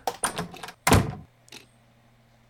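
A door from the front upstairs hallway, which has a parquet floor, into a person's room opens with a few quick latch clicks and rattles, then a heavier thunk as it swings, followed by a faint tap and a quiet low hum in the room.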